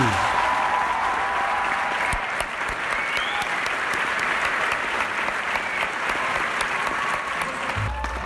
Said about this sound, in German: Meine Damen und Herren, heute sind wir bei unserer Podcast Nummer 50 angekommen. Einen großen Applaus an April.